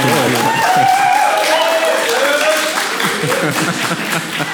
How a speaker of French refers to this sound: Ils sont très bons pour applaudir.